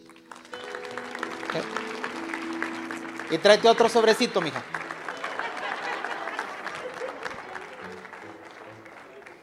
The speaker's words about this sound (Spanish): Denle un aplauso a esa chica.